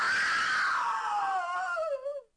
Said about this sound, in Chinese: 起码他还能发出刺耳的尖叫声，引来其他寝室的学生。